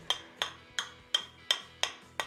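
Seven sharp glassy taps in a steady, even rhythm, each with a brief bright ring, as one beer bottle knocks against the cap of another to open it, alone.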